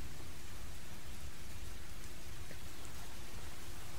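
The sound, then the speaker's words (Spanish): Steady, dense, very heavy rainfall from a storm hisses continuously with no breaks, a broad wash of noise with a low rumble underneath, heard alone without any voices. “Tras unos minutos la lluvia caía con tanta fuerza que podía sentirla en mi piel.”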